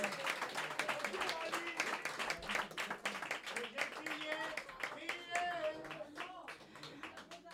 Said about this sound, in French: Elle est là et on peut applaudir parce qu'elle est parmi nous.